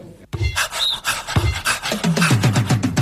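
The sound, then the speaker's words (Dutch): The dog Kazan pants rapidly, a steady run of quick, breathy huffs that speeds into an even rhythm, with no one talking over it. “Haal die hond nou even weg.”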